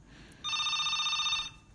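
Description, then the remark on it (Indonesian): An incoming telephone call rings once in a steady electronic burst lasting about a second, bright, with a quiet background before and after and no one speaking. “Kita tunggu dulu telepon dari Dedi. Apakah ini benar yang nelpon adalah Dedi?”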